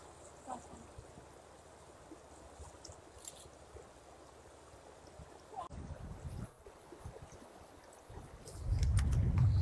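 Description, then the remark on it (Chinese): Steady, continuous rush of flowing river water, a broad even hiss with no voices, joined near the end by a louder low rumble of wind buffeting the microphone. “对，有河水”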